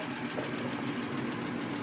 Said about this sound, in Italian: Siamo all'Alfa Blue Team del nostro amico dottor Gippo Salvetti eh, questo è un Alfa 6 molto particolare, è un Alfa 6 a prova di bomba perché è blindata, venite a vederla, al momento al minimo